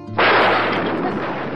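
A sudden, loud thunderclap following a flash of lightning across the night sky bursts in after a brief low hum, then holds as a harsh, broad roar that rumbles on without easing, with no voices.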